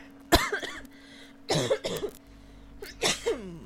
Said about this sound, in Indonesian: bonus batuk dari gua